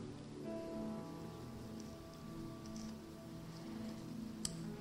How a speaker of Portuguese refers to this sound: Essa é a chuva do céu, é a palavra de Deus.